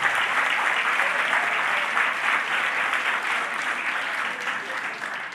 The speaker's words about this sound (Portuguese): Bacana vocês aplaudirem isso aí.